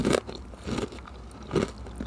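Crunchy bites into an Earl Grey tea biscuit: four crisp, crackly crunches spaced roughly half a second apart, moderately loud, with no talking.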